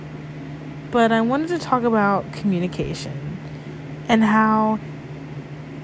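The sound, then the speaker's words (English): A steady low mechanical hum of an electric fan running drones throughout at a constant level beneath a person talking. “This is my very first podcast recording, and you can hear my fan in the background.”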